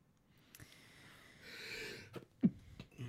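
A single sneeze, preceded by a breathy hissing intake and ending in one short, sharp burst, with brief rustling and faint breathing around it.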